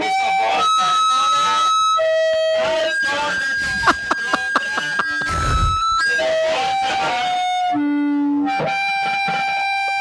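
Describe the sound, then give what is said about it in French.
Sound of a microphone being boiled: warbling, distorted electronic whines that shift pitch, broken by crackles, sharp pops and a low rumbling burst, loud throughout with no talking. “Voilà le son d'un microphone bouilli.”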